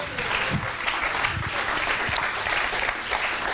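An audience claps steadily throughout, a dense wash of many hands applauding at an even loudness, with a few brief low voice fragments underneath.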